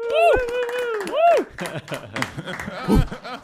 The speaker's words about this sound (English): Let's just get a little, you know, let's clap it out.